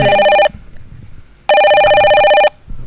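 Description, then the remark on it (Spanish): A telephone rings twice for an incoming call with a bright, warbling electronic tone, each burst lasting about a second with a pause between, loud against faint background noise. “Está entrando un llamado.”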